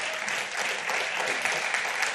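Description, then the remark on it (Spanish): A crowd claps for themselves for their loyalty to God, a dense, even patter of many hands with no breaks or voices, sustained at moderate loudness throughout. “Eh, la verdad es que dese un aplauso.”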